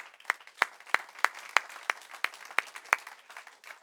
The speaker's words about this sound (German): Wir wollen alle begrüßen in der deutschsprachigen Welt, die uns zuhören oder zuschauen. Super, dass ihr dabei seid und wir wollen euch mit einem kraftvollen Applaus begrüßen heute Morgen.